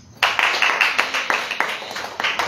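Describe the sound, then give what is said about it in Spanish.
An audience claps their hands for Jesus Christ in a steady, fairly quick rhythm, many palms striking at once with sharp, bright slaps that stay loud and even throughout, with no voices over them. “Palmas a Jesucristo, hermanos.”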